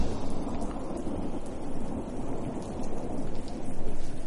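A steady downpour of rain hisses throughout, underpinned by a deep, rolling thunder rumble that swells and ebbs, growing heavier toward the end. No voices are heard.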